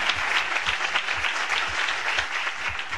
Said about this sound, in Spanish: ¿Cuántos aplausos, por favor?